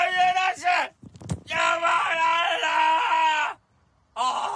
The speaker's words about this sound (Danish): Betjenten går hen mod huset og kan godt høre, at øh, der bliver råbt ned fra kælderen